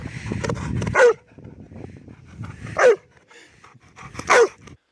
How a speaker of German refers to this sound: Ich würde sagen, ähm, Border Collie. Labrador. Ah, Mann. Ah, Hiermit endet dieses Spiel. Hunderassen am Bellen erkennen.